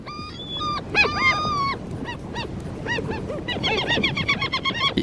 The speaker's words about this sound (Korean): 이게 무슨 소리일까요? 어디선가 뭐 바람 소리도 들리는 것 같고, 예, 갈매기 소리입니다, 갈매기. 예, 갈매기 소리.